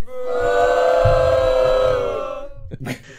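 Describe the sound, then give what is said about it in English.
A group of voices boos the host during a quiz game. They boo together in one long, sustained, droning tone that holds steady for a couple of seconds before trailing off, followed by a few short bursts of sound. “Wait, are they booing me?”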